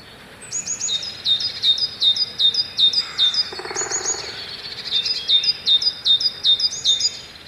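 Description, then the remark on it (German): Lively forest birdsong: a bird repeats bright, descending chirpy phrases in quick rhythmic bursts, with softer calls and a gentle ambient hush underneath. No one speaks. “Dabei sollten unsere Wälder doch eigentlich eher so klingen, oder?”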